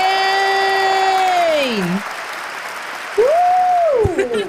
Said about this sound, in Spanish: Sí, denle un fuerte aplauso a la diseñadora de modas y reina de Avalon